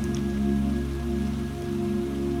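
Steady, continuous rain patters down evenly with no breaks, blended with a low sustained humming drone underneath; no one speaks.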